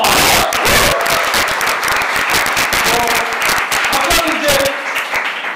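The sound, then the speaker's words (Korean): An audience bursts into sustained applause, dense rapid clapping at a steady loud level for several seconds, thinning slightly toward the end, with faint voices mixed into the crowd noise. “아, 박수 한번 주세요!”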